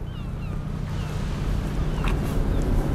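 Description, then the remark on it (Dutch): Steady outdoor rumble of wind buffeting the microphone by open water in a harbour, recorded while walking along the part of the harbour used for larger boats, with a low engine-like drone and faint high bird calls; no one speaks. “Ja, het gedeelte van de haven waar we nu langs lopen...”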